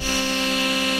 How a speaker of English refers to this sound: So they might take a sample um, of a chord, just a simple, a simple uh, piano chord. Uh, in this case, we're going to do a synthesizer chord, which is going to sound like this